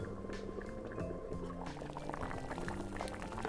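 Water bubbles at a steady rolling boil in a pot of potatoes, with a few soft splashes and clunks as broccoli florets, sliced broccoli stems and cut asparagus drop into the pot; no one speaks.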